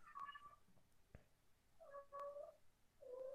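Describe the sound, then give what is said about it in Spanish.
A cat meows three times, each call a drawn-out, wavering cry with clear harmonic tones, moderately loud, separated by short pauses with a faint click between the first two. “Es que estoy escuchando al gato y dije, ¿qué onda?”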